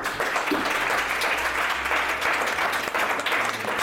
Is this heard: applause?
yes